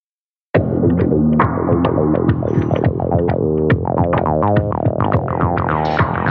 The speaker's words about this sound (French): Je vais vous faire écouter des démos, hein. d'abord en dry et en traité. Par exemple, une boîte à rythme, une TB303